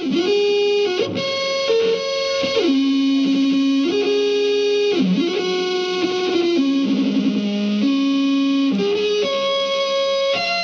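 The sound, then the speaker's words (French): An electric fan, strapped around a man's neck with a guitar strap, played as a musical instrument: a loud, buzzy, distorted tone holds steady notes and jumps between pitches in a slow, continuous melodic line, with no talking. “Et il joue du ventilateur.”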